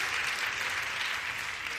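An audience claps steadily, a dense wash of many hands with no break across the whole moment, fairly loud and bright, with no voices on top.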